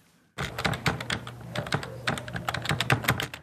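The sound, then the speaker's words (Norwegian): Rapid, irregular clatter of keys as a blogger types on a computer keyboard in a small office in Addis Ababa with the curtains drawn, a steady stream of sharp clicks after a brief silence, with a faint low hum underneath and no voices. “En hverdagslig og ufarlig lyd for de fleste.”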